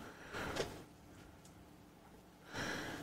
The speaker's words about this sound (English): I don't know what Duke the dog is doing over there, but he's making all kind of noise